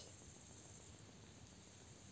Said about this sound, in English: There are also some insects there, maybe beetles maybe grasshoppers, maybe some others.